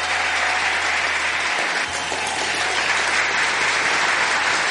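Sustained applause from a crowd for the technical operator of the Red Mosquito Radio team, a dense, steady wash of many hands clapping at an even loudness throughout, with no voices standing out.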